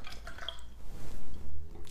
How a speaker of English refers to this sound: Fill it till top. Actually, I just finished this water. So fill it here and then pour the water in the glass where you want all the positive situation in your life.